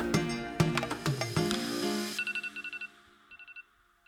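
Alarm clocks go off at 6:30 in the morning: a loud, bright electronic melody rings for about two seconds, then gives way to rapid high-pitched beeping in quick bursts, fading quieter toward the end.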